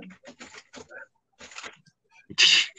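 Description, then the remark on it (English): Irregular scratchy, thumping bursts of a cat scrambling around under a bed, with short pauses between flurries and a louder, harsh scuffle near the end. “Oh, my, I don't know if y'all can hear this, but my cat is going crazy under the bed right us.”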